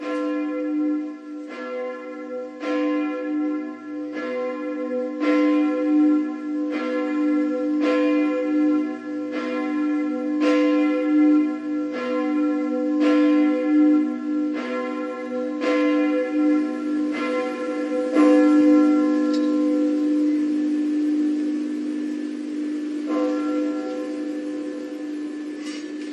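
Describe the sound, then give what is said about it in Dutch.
Church bells toll steadily and slowly in Tilburg, rung in memory of the people who died in the plane crash over Ukraine: a regular series of deep resonant strikes with long ringing overtones that overlap and sustain throughout, with no voices present. “De klokken worden geluid nu in Tilburg.”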